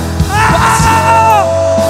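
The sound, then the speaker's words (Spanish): A crowd shouts on cue after a count of three, a loud, sustained shout all at once, many voices overlapping in a dense roar that holds steady for about two seconds. “Cuando cuente tres vas a gritar.”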